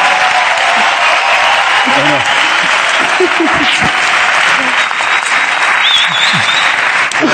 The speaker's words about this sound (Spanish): Un aplauso para ella.